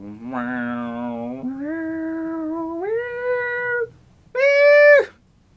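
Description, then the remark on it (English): A voice imitates a slow synthesizer line, holding long buzzy notes that step upward in pitch, then breaks off briefly before one louder, higher sustained note ends it. “Uh, it's just that that's a synthesizer.”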